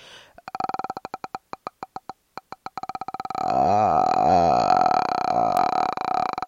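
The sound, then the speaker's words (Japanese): A solitary vocal fry (edge voice) demonstration, made with throat vibration alone while gradually letting the voice out: slow, separate creaky glottal clicks that speed up and merge into a sustained, rattling low-pitched creaky voice, with no words spoken. “こんな感じでね、あの、エッジボイスをね、出せるようになったらね”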